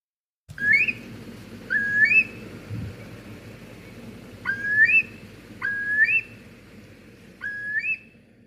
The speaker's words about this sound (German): Und wenn ihr wollt, könnt ihr jetzt mal kurz eure äh, Ohren aufsperren und dann hört ihr, wie sich der große Brachvogel äh, so in der Natur anhört.